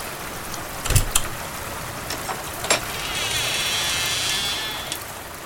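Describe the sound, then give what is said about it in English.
Steady hiss of heavy rain during a nighttime thunderstorm, with a brief low rumble of thunder near the start and scattered sharper patters; no one speaks. “She called out over the thunder and rain through the door as she unlocked and opened it just a crack.”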